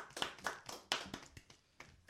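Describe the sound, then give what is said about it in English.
A quick run of hand clapping to welcome a guest, the speaker's cousin: around nine or ten sharp, bright claps in a slightly uneven rhythm, fairly soft overall, with no voices. “Clap wow. it up for her.”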